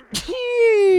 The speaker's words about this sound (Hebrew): הנה הפצ'י.